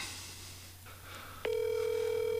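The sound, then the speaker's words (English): A phone call to a friend ringing on the line: after a quiet low hum, a steady electronic ringback tone starts and holds evenly for about a second, fairly loud, with no one answering or speaking. “We're going to call, and if everyone knows this segment, we call someone, one of our friends, and then they never pick up the phone.”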